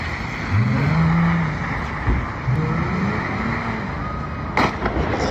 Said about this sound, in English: We got a drifting ass SRT Ninja right here. I don't know where this is, but apparently somebody somebody let their friend drive their SRT to attempt to drift, and let's see how it went.